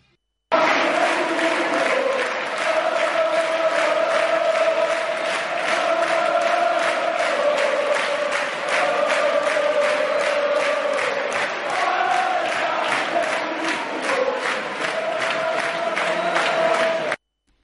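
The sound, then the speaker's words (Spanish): A huge football stadium crowd roars and chants continuously after Valencia's 5-0 win over Basel in the UEFA Europa League, a dense wall of cheering voices with rhythmic clapping pulses running through it, loud and sustained from start to finish. “Ese era el sonido de ayer del eh, partido, después del eh, partido de la manita del 5-0 de ayer del Valencia frente al Basilea que le lleva directamente a las semifinales de la UEFA Europa League.”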